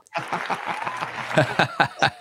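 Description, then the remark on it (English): Steady applause welcoming a guest to the show, with many overlapping claps and some chuckling laughter mixed in, a dense crackling wash with a few louder bursts toward the end. “oh, you got applause. That's good.”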